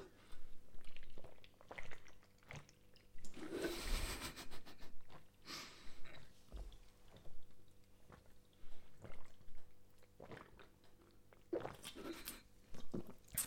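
Someone gulps down a drink in one go: a quick run of wet swallows and liquid sloshing, fairly loud, with no talking.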